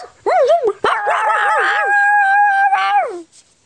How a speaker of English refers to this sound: Then Floppy saw Gran. She was in the hat shop. Floppy ran in and barked.